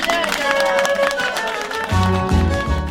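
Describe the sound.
A group of women clapping in a steady, dense patter while several voices talk and call out over it, the applause carrying on loudly for a few seconds.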